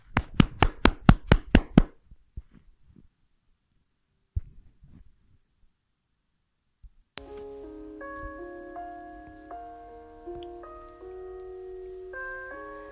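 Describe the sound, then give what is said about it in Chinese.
A short burst of about eight quick, evenly spaced claps, loud and sharp, welcoming a storytelling show's mentor to explain a story, followed by a few faint taps and then a steady musical melody. “为我们解析这段小故事，掌声有请。”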